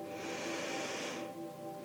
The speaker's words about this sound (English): Let's focus on our breathing one more time. We're going to take a deep breath in